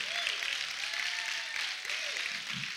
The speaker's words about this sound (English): Now, somebody clap real loud. Come on. Come on, stir me up.